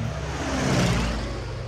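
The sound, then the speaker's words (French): An unidentified propeller plane drones steadily overhead at night near Jussieu, south of Notre-Dame, its low engine hum swelling slightly toward the middle of the brief pass before easing off, with no voices present. “En pleine nuit, l'avion fantôme est repéré aux alentours de Jussieu au sud de Notre-Dame.”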